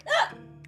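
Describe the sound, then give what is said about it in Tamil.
A voice imitates a donkey's bray in one short, strained burst, loud and close, trailing off into a low hum before a faint vocal sound at the end. “இன்னைக்கு இந்த கழுதை ரொம்ப வித்தியாசமாக கத்துது”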